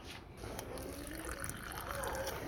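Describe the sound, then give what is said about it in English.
A steady, continuous trickle of hot water being poured slowly into a dough mixture while another person mixes, fairly quiet, with a faint murmur of background activity underneath. “One person is gonna pour the hot water slowly while the other person is mixing.”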